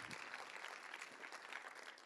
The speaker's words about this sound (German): Meine Kinder, ja, gebt gerne einen Applaus.